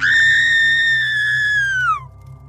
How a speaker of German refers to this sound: Sie zieht unvoreingenommen schnell die Gardine zur Seite und blickt in ein bärtiges Männergesicht mit aufgerissenen Augen und Mütze. Ihr stockt der Atem. Sie schreit.